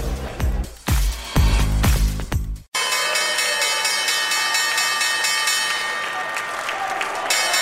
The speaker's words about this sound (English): double ring of the opening bell here at the New York Stock Exchange